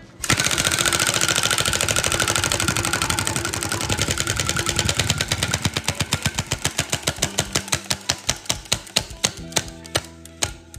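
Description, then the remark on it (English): A man spins a prize wheel, giving a rapid stream of ratcheting clicks that gradually slow and space out until the wheel ticks to a stop. The clicks are fairly loud, with no talking. “He's going to give the wheel a spin right now.”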